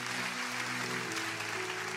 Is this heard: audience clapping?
yes